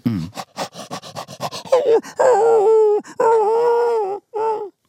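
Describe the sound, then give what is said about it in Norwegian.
A person imitates a dog, starting with quick panting huffs, then drawn-out high whining whimpers in several long, wavering bursts, fairly loud with no other talk, acting out a dog wanting to go for a walk. “Ok, så, så, hvis jeg prøver å være en hund nå, da, og så kan dere gjette eh, hva jeg forsøker å si, OK?”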